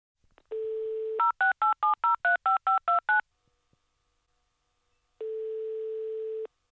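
A steady dial tone gives way to a quick run of about ten touch-tone beeps, each a distinct two-note chirp, followed by a pause and then another long flat tone, as a phone call to a friend is dialed. No one speaks.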